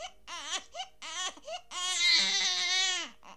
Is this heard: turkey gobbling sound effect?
no